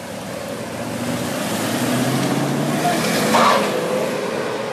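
A black armored car drives past with a steady engine rumble and road noise, swelling briefly near the end before easing off, carrying a prisoner from Oslo district prison to a custody hearing. No one speaks.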